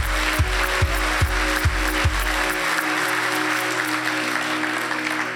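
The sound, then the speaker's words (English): A church audience applauds together as a clap offering to the Lord for those who raised their hands, a dense wash of clapping, with a few low rhythmic thumps early on before the applause carries on steadily. “Can we give the Lord a clap offering for those who raise their hands?”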